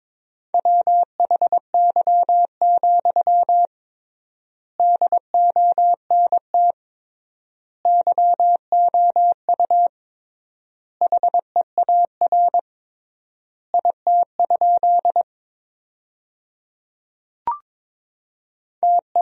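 Steady single-pitch Morse code beeps sent at 22 words per minute with triple word spacing, spelling sentences built from the 300 most common words: short dots and longer dashes in brisk groups separated by clear pauses, with no voices. Loud and clean throughout.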